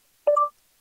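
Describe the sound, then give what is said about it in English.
A single short electronic beep from a phone after the dictate button on its side is pressed, a quick two-tone chime lasting about a quarter second, clear in otherwise quiet surroundings, signaling voice dictation is ready. “You 10. can just hit the dictate button on the side, wait for the beep.”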